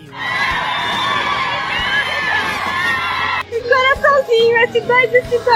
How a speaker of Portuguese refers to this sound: o que gerou algumas vaias dos mais conservadores, mas que não foram páreas para os gritos histéricos das fãs.